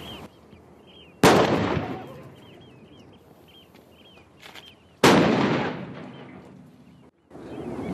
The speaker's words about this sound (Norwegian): Begge skudd fra Oscarsborg var treffere.